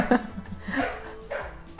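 A dog barks and yips in a few short, sharp bursts spaced irregularly, fairly faint over a low background murmur, while tussling with a child in rough play.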